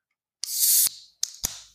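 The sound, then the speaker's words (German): A can of sparkling drink is opened: a bright, hissing fizz lasting about half a second, then two sharp metallic clicks, each trailing off in a softer fizz. No one speaks. “Ich habe Dose.”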